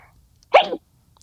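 A single sharp sneeze bursts out, loud and brief, standing alone against a quiet background with no talking during it.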